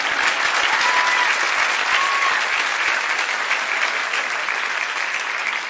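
A crowd applauds steadily, dense overlapping handclaps holding an even, fairly loud level for several seconds with no voices above them.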